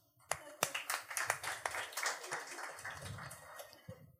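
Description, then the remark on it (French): Scattered applause from an audience clapping to answer whether they have a very good, close relationship with their mother: a handful of sharp individual claps over a steady patter of many hands, with some murmuring voices underneath. “y en a-tu ici, par applaudissement, qui ont vraiment une très belle relation avec leur mère, tu sais, qui sont vraiment proches?”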